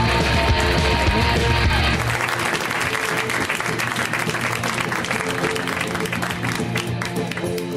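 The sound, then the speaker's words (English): A live audience bursts into loud, sustained applause with scattered cheers and whoops as a comedian is introduced, dense clapping lasting several seconds, with a low rumble underneath at the start. “Please, and you're going to go extra crazy for him because he's got like tons of accoutrement.”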